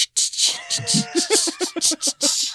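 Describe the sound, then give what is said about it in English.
A voice imitates a car driving, with a steady stream of hissing and buzzing vocal noises that break into quick rhythmic pulses for a couple of seconds. “That's the sound of driving, apparently.”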